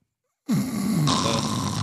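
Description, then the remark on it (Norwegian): A voice makes a loud, exaggerated snoring noise, a single drawn-out rasping snort starting abruptly after a brief silence and holding steady to the end. “Snorkorama!”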